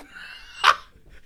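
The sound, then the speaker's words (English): A single sneeze: a drawn-out, breathy vocal build-up followed by one sharp, loud burst, then quiet with faint breathing afterward. No one speaks. “Sorry, I've got a sneeze because I'm the godfather.”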